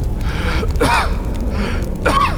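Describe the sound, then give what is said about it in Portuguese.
Two strained, raspy gasps for air, one near the start and one near the end, with ragged breathing between them over a steady low rumble, like someone choking on smoke. A voice acts out the gasping. “Tu tenta puxar ar, mas tudo que vem é fumaça.”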